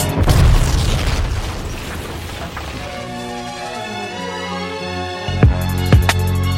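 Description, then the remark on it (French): A loud bomb explosion, a man blowing himself up on a bus, bursts out with a deep boom, then fades into a long, rumbling decay over a low droning tone, followed by two sharp, quick bangs near the end. “L'homme se fait exploser, ta vie est mort et ses parents vont continuer.”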